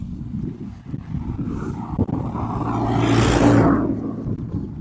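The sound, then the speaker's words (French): A car approaches and passes by outdoors in a rural setting, its engine and tire noise swelling to a broad rushing peak before fading away, with light wind in the background. “On va laisser passer la voiture.”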